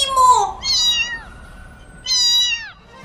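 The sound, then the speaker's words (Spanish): Several cats meow in quick succession, three drawn-out, high-pitched cries that rise and fall, fairly loud, with a short quiet gap before the last one. “No, nunca vi tantos gatos juntos.”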